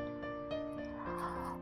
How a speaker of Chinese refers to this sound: 哦，爸爸又打了一个大大的哈欠。